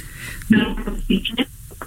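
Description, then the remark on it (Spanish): A female legislator's single voice speaking over a remote phone-style connection, sounding thin and hollow with a heavy echo smearing the words, moderately loud with brief pauses between phrases. “Claro, diputada, seguimos sin escucharla bien, se oye mucho eco.”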